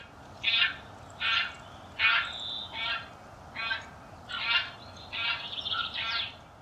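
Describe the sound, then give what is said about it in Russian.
A series of bean goose calls, about eight short honking bursts in an irregular rhythm, moderately loud over a soft background hiss with no voices. “А это, между прочим, уже гуменник.”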